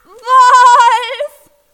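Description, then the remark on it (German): A goat lets out one loud, urgent alarm bleat on seeing a wolf, lasting just over a second, a harsh quavering cry with a wobbling pitch, heard on its own with no talking. “Er tritt auf einen trockenen Ast und Glück fährt herum, sieht ihn und schlägt Alarm.”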